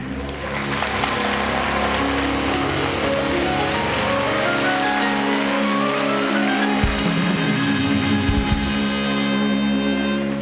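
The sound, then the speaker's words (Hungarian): Loud, sustained audience applause, measured by an applause meter to decide whether Bajor Imre earns a point for his performance, fills the whole stretch without pause, with steady musical tones running through it and a brief dip in the low end near the end. “Úgyhogy kérem szépen tegyük ki a tapselzőt, és önök tapsának erőssége fogja eldönteni, hogy kap-e érte egy pontot, vagy nem.”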